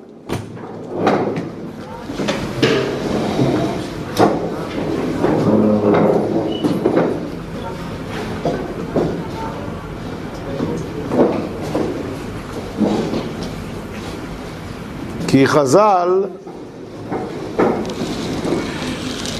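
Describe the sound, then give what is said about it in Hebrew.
A chair scrapes across the floor with a brief, squeaky rising-and-falling screech near the end, while a man keeps lecturing in Hebrew over shuffling noise. “חבר'ה, כל תזוזה של כיסא מאוד מאוד מפריעה.”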